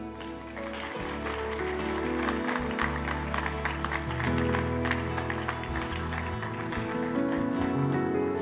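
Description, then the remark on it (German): An audience at a Christian worship service applauds people with dense, steady clapping that holds at an even, fairly loud level for the whole stretch, while low sustained musical tones hum faintly beneath it. “Wir können den Menschen Applaus geben.”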